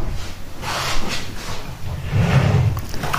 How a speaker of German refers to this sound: Macht ja schon wieder die Tür zu. Ja, dann machen wir sie ganz zu. Kommst hier nicht mehr rein.